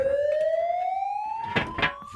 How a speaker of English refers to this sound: Uh, so he hustles you into the sewer access, um, and as he starts to climb down, you hear a bunch of commotion from behind you on the street, some sirens as well, and the access hatch closes.